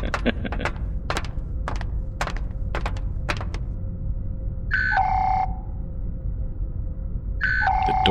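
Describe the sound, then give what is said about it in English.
A sci-fi door panel gives a two-tone descending electronic beep twice, a few seconds apart, after a run of sharp mechanical clicks and thunks over a low steady hum, as the offline sliding door refuses to open. “door's offline. Commander Durnham, please override the door I'm presently in front of.”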